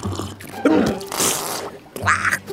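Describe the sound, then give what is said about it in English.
A wet, sputtering spit take of bitter coffee with no sugar or milk, served at a restaurant: a choked vocal gurgle bursts into a hissing spray, followed by a brief sputtering cough, fairly loud with no words spoken. “Oh, fantastic, spit take, sir. That's what we like to see here.”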